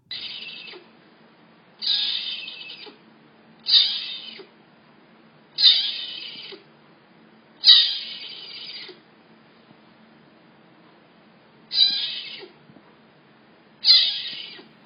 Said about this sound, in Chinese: 第一段是石虎的威吓声，第二段是石虎的小 baby 的声音。